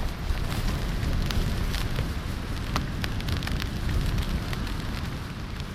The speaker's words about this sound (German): Das war nachts in Albany, an der Küste im Südwesten. Draußen blies ein Sturm und der Regen tröpfelte auf das Zeltdach.